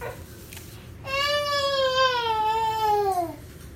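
A baby girl fusses briefly, then lets out one long, high-pitched wail lasting about two seconds, its pitch wavering slightly before sliding downward as it trails off.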